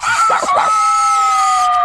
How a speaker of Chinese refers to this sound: 什么？那只吵人的公鸡是他们的爸爸？